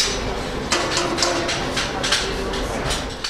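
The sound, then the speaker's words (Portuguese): Metalworking training workshop ambience at the company ABB in Berlin, which trains in metalworking and electronics: a steady mechanical hum with sharp, irregular hammer strikes ringing out every fraction of a second, some bright metallic clanks standing out above the background noise. “Continuamos em Berlim, mas estamos agora na empresa ABB, uma empresa que dá formação na área do metal, metalomecânica ou eletrónica.”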